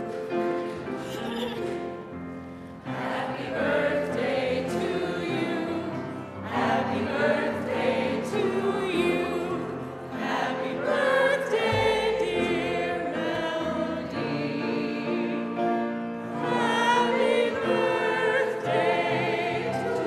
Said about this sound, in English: so if you would please join us all in singing, happy birthday.